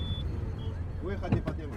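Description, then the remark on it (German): Steady low rumble of heavy city street traffic in Algiers, Algeria, with passing car engines, while someone talks over it. “Dabei erstickt Algier längst am Verkehr.”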